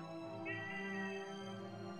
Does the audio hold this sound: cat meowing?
yes